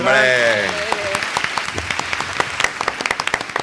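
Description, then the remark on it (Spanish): A voice calls out briefly, then a small group breaks into lively applause for a promotion, individual claps distinct and steady for a few seconds. “un aplauso por el ascenso.”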